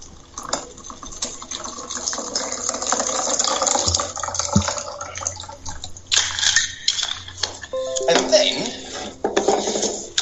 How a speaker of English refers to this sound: So we put that all together. Pour it into your martini glass. Oh, it's all pink.